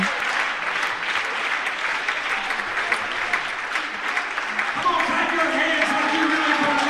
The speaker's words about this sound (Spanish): Aplausa a Dios ahora.